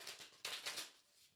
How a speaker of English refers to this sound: So just take a moment, Connect to the cards by listening into the sound of them being shuffled.